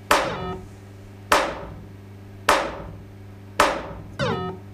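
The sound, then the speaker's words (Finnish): Loud mechanical knocks from a pinball machine's free-game knocker, four sharp clunks at a steady pace and a fifth softer one right after, each with a brief resonant ring. No voices. “Vapaa pelit, mulla on jäänyt mieleen niin omasta nuoruuden kokemuksesta, niin se, tiedätkö, niin kuin, kolahdus kuuluu.”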